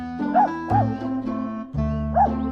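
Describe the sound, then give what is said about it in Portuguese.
Lola the dog barks restlessly, letting out three short, high yipping barks spaced across a couple of seconds, over a steady droning musical background. “eu tô ouvindo daqui a Lola latindo, inquieta.”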